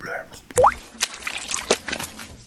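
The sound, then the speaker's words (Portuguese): A short bubbling water effect: a quick rising bloop followed by a scattering of gurgly pops and splashy bursts, moderately loud, lasting a couple of seconds. “Entra aqui um, um borbulhinho assim.”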